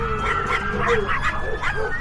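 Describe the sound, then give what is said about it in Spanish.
A chihuahua barking and yipping rapidly in a steady stream of high-pitched, sharp yaps, fairly loud, with some whiny tones mixed in and a background murmur. “Además, estos pequeños monstruos de cuatro patas iban defecando por todos lados.”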